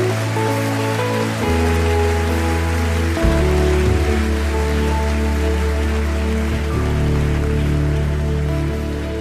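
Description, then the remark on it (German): A church audience applauds, after a prayer, those who raised their hands, in a dense, steady wash of clapping that lasts throughout, with sustained keyboard or organ chords changing underneath. No one speaks. “Und jetzt geben wir all denen, die ihre Hand ausgestreckt haben, einen mächtigen Applaus.”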